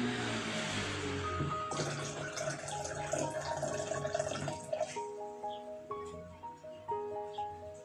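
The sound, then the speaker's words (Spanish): A small stream trickles and splashes steadily, with soft drips and gurgles. Gentle sustained musical tones play underneath, and the water grows quieter and more pulsing toward the end. “Llegó la noche y el niño con el niño junto a su caballo llegó a a un pequeño riachuelo.”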